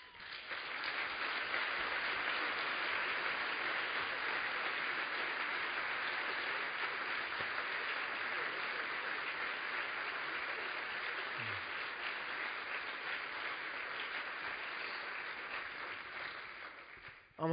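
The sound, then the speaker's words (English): A church audience applauds steadily for about seventeen seconds to show support for helping parents raise their children in the faith, a dense, even wash of many hands clapping with no speech over it, fading slightly toward the end. “Just show it with your strong and healthy applause.”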